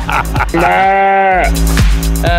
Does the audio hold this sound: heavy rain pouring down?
no